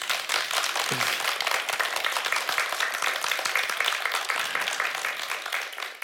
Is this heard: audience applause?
yes